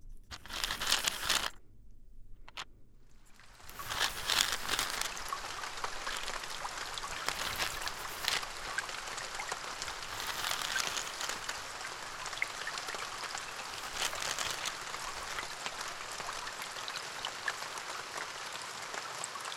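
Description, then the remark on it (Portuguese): Steady summer-morning rain pattering densely on a surface, a continuous hiss of drops, starting after a brief quiet moment and holding at an even level without any voices. “Ainda é verão, mas a chuva acordou-os naquela manhã.”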